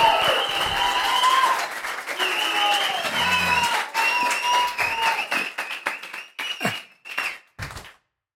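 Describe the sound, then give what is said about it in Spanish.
An audience applauds steadily as candidate Jimmy Jairala is invited onto an interview program, a dense wash of clapping with some voices and cheers mixed in, then thins into scattered claps and stops about eight seconds in. “A mí no me aplaudió nadie, fue cuando, cuando entré.”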